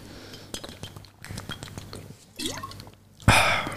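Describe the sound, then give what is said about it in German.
Water pours from a Voss bottle into a glass with gurgling, dripping sounds, followed by a bright clink of glass near the end; fairly quiet, no talking. “Ähm, das ist mein Lieblingswasser. Das ist tatsächlich. Schaudert und Voss, er macht die besten Flaschen.”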